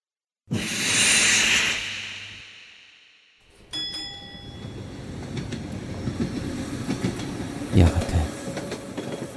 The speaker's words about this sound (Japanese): 電車が動き始めた時僕は車窓から景色を眺めこうつぶやいていたああ動く世界が動く。